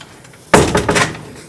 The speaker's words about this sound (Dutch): Wacht, ik doe de deur dicht.